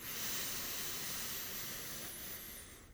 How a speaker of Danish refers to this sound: Så man ånder helt ind ned til maven, får maven til at udspille sig, brystkassen til at løfte sig op på en dyb indånding gennem næsen.